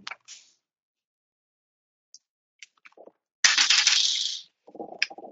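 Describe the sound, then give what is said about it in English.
A few scattered clicks, then a dense rattling clatter of dice rolled for a stealth roll with a bonus die in a tabletop game, lasting about a second, followed by softer tapping as they settle. No voices are heard. “Um, give me a, sort of a stealth roll. Give yourself a bonus dice for that.”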